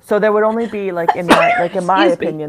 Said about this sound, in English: bless you. Sorry.